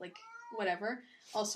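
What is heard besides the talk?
cat meowing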